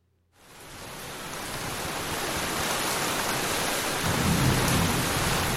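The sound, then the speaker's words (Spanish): Steady, heavy rain hisses throughout after a brief silent start, with a deep roll of thunder swelling low underneath toward the end. No voices. “Después de cuatro horas de viaje, el mula de noche, con oscuridad, con tormenta”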